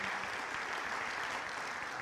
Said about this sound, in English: Let's give the worship team a round of applause.